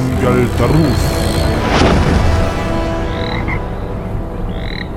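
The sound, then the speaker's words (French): A frog, a person just turned into one by a spell, croaks loudly and repeatedly, its throaty calls layered over a dense, busy sound-effects bed with a brief sweeping whoosh early on. “Transformer les gens en grenouilles, c'est déjà vu et revu, mais néanmoins, c'est efficace.”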